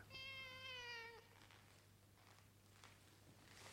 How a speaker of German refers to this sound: In der Werkstatt lief gerade keine Maschine, es war so still, dass man deutlich ein Miauen hörte.